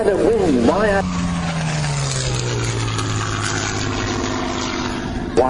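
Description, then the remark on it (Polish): Two World War I fighter planes, a Sopwith Pup and a Sopwith Triplane, fly overhead, their propeller engines droning steadily, pitch sliding gradually lower as they pass by, with a person talking briefly at the start and again at the end. “Obydwa myśliwce z pierwszej wojny przylatują tu ładnie nad nami.”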